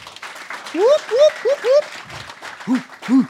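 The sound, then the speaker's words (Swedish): A short burst of audience applause welcoming one of the founders, with several rising vocal whoops and cheers on top, followed by a couple of brief lower hoots as the clapping continues. “Applåd”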